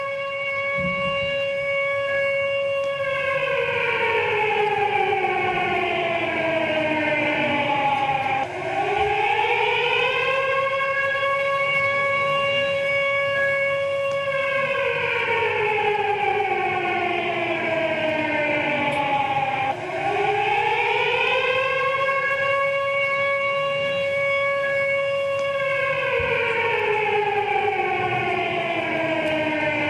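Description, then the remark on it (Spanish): A loud civil defense siren wails continuously, its pitch rising and falling in slow, sweeping cycles about every ten seconds, with no voices over it, sounded at 9:53 on 18 July to commemorate the moment of a bombing attack. “Eh, cada año, los 18 de julio, eh, se recuerda el momento del atentado con la sirena que sonó aquel día a las 9.53.”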